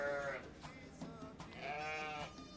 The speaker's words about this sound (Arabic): شكون اللي جابوه علوش العيد مو باش يحطوه في استوديو متاع اسبوعي هكا باش يقعد يبعبع